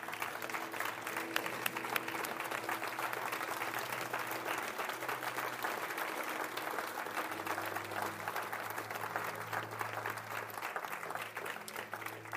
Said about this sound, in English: Can we just give them a round of applause as we pray? Y'all can stand. Come on, give them a standing ovation. Make them cry.